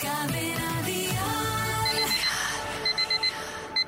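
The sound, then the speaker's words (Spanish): Music plays and fades, then an alarm clock goes off with rapid, bright electronic beeps in short repeating bursts, loud, with no one talking, marking 6 a.m. wake-up time on the Atrévete show on Cadena Dial. “¿Escuchas? Es la hora de saltar de la cama.”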